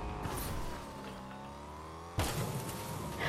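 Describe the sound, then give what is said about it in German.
A game car's engine drones and revs, its pitch sliding up and down for about two seconds before cutting abruptly into a louder, rougher roar. No one speaks. “Noch ein Auto.”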